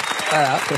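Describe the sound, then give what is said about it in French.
A short burst of applause, a dense crackle of clapping hands, while a voice speaks over it. “Et oui, mesdames et messieurs, applaudissements.”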